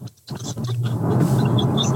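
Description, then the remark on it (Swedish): A steady, low engine rumble fills the space after a brief quiet moment at the start, like being inside a moving car, with faint higher chirps toward the end. “Du, det, var, det var högst oklart om vi, vi, du skulle kunna svara, men eh, det ser ut som att du sitter och kör bil.”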